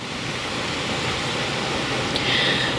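A steady, hissing wash of ocean surf on a sunny, hazy day fills the scene without pause, with no one speaking. A brief, faint high chirp surfaces near the end.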